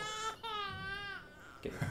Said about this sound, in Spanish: Tenemos el típico bebé llorando. Eh, pongamos al bebé. ponemos al bebé llorando.